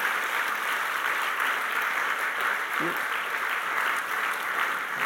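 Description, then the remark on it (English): A standing crowd applauds steadily, a dense, even wash of many hands clapping at once that holds at a constant level throughout, with no single voice standing out. “You can stop clapping, but I want you to remain standing.”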